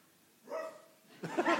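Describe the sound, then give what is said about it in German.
A person imitates a dog, giving two short barking yelps in quick succession, the second louder and rougher than the first, with no other sounds. “Wenn du vielleicht einmal deinen besten Hund vormachst.”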